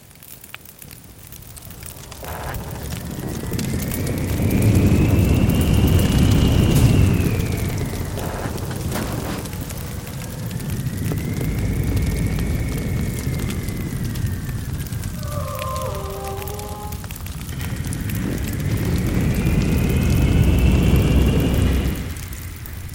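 Roaring wind rush from hang glider loops swells and fades in three long waves, each carrying a thin whistling tone that arcs up and down, with a brief stepped chime-like pattern midway.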